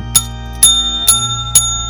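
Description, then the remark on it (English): A doorbell rings four times in an even, quick rhythm about half a second apart, each bright metallic strike leaving a lingering high tone, with no voices. “Wait, wait, wait. Who's at the door?”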